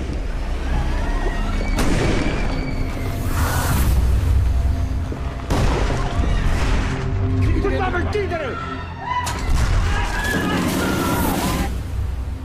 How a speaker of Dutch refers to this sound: Dus die, die hoort de geweerschoten, dat geluid was trouwens fantastisch.